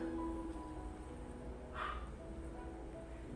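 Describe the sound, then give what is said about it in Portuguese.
A single faint dog bark sounds once in the background, a brief yap standing out against a quiet background hum with no one speaking. “E aí, se você ouvir um cachorro latindo ao fundo, é, se permita que esse latido, esse barulhinho de pássaros apenas ajude você a relaxar ainda mais, tá bom?”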